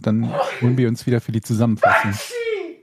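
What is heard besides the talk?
sneeze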